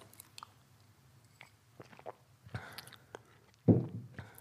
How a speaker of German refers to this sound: Ein Schluck Wasser